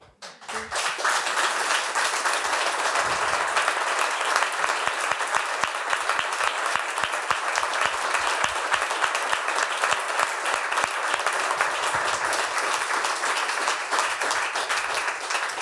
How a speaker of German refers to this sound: dürfen nochmal klatschen.